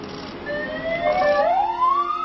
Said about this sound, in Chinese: 从早晨七点开始，天津滨海新区的悼念活动分别在六个不同的地点举行，悼念的警笛响彻京门。